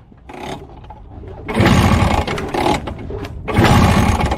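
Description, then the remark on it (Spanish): A motorcycle engine sputters to life, then roars through two loud revving bursts separated by a brief dip, with no one speaking, as the opening of a song. “con una moto”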